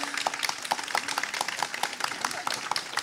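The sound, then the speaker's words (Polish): An audience applauds the guests of a panel discussion: many hands clapping in a dense, irregular patter that holds steady at moderate loudness for about three seconds. “Proszę o oklaski dla naszych gości”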